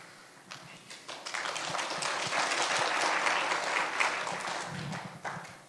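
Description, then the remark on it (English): An audience bursts into applause, many hands clapping in a dense, steady patter that swells quickly and holds for several seconds before starting to thin out at the end. “They never clap for me.”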